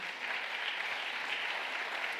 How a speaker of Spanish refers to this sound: ¿Cuánto le dan un aplauso fuerte?